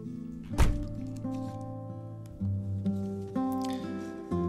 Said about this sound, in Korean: 그녀가 대꾸 없이 문을 쾅 하고 닫고 내리고 나서 나는 야 인심 한번 각박하다 그랬었다.